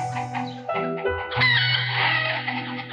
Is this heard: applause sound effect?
no